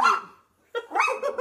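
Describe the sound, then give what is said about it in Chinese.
A dog barks, one bark fading out, then after a short pause a quick cluster of sharp, mid-pitched barks. Fairly loud, with no talking over it. “我们这播客现在真是鸡飞狗跳，还有狗叫，我真的。”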